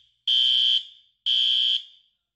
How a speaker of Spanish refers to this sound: Espérate, voy a poner la alarma de spoilers.